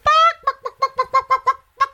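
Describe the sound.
A person imitates a chicken: a drawn-out squawk followed by a quick, rhythmic run of about eight short clucks, loud, with no other talking.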